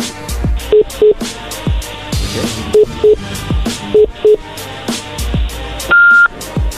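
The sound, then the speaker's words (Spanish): A telephone number is dialed to call a woman while the current call stays connected: three pairs of short, evenly spaced keypad tones at a steady pitch, then a longer, higher tone, all over a busy musical background with no talking. “le marca sin colgarnos a nosotros, ya que estés con ella, obviamente nos conectas ahí a nosotros y ella no se va a dar cuenta.”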